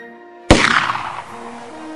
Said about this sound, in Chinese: 枪声震动了宁静的天地。